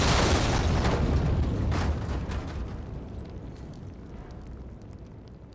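sound effect, explosion

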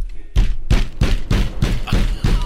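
household object, knocking on a door

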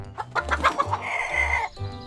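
bird, hens clucking

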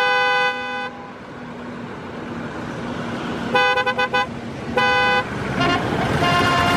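vehicle, truck horn honking

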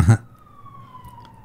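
vehicle, ambulance siren

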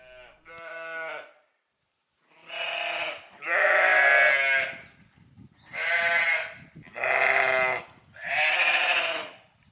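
animal, lambs bleating

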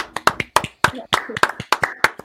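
crowd, round of applause

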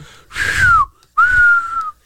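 human body sound, high-pitched human whistling

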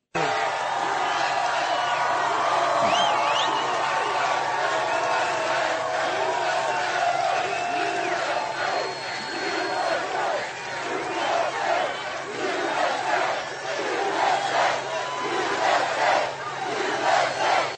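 crowd, crowd chanting

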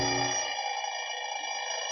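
household object, alarm clock going off

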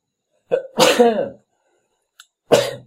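human body sound, sneeze

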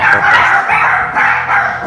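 animal, dog barking

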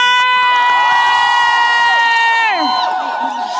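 crowd, rally crowd cheering

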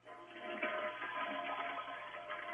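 household object, toilet flushing

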